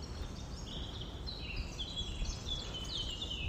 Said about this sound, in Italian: Ah, mi ha sentito questo uccellino? Che bellezza. Avviciniamoci a questi alberi. Ascoltiamolo bene.